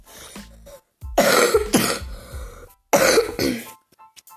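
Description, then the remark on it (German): Two loud, harsh coughing bursts, each a cluster of rough hacks, with softer throat clearing between and after them, from a person who still has a slight cough, without any talking. “ich habe immer noch ein bisschen Husten.”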